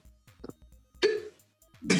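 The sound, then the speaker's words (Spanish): Several abrupt hiccups from a person who has had hiccups all day: a small one first, then two sharp, louder catches about a second apart. Each is a brief throaty jolt with no talking around them. “No, en este momento se escucha por mi hipo”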